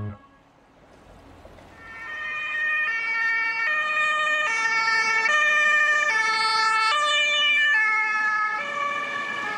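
Police sirens wail in a steady two-tone alternation, swelling up after a quiet start and staying loud. Several sirens overlap as a whole convoy of police cars with flashing lights drives away after a court session, a convoy tied to Willem Holleder.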